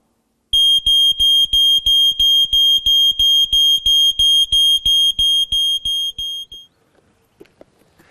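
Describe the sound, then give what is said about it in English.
A loud, piercing smoke alarm beeps rapidly and steadily, about three beeps per second for six seconds, then stops abruptly, leaving faint quiet rustling. “This is a smoke alarm.”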